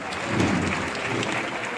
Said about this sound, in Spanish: Y ahora sí viene andando, concluye la composición, suenan las palmas.